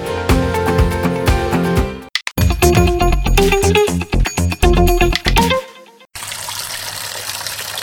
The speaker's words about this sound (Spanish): Papá, está bien que te protejas con el lavado adecuado de las manos, pero no abuses desperdiciando tanta agua.